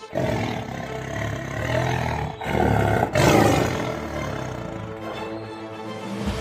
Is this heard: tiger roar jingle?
yes